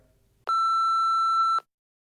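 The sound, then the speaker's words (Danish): A single steady voicemail beep tone on a call to Thomas Frank's phone, loud and clear, holding one pure pitch for about a second before cutting off into silence, with faint background noise just before it. “Vær venlig at lægge en besked efter tonen, så svarer når vi rykker op i Premier League.”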